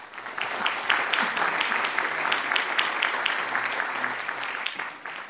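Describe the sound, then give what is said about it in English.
Sustained applause from a large crowd welcoming Professor Amar to the stage, steady and dense with many overlapping claps, continuing at an even level throughout without voices standing out. “And now, please join me in welcoming Professor Amar to the stage.”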